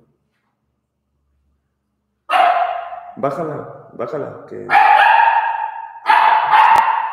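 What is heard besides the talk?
dog barking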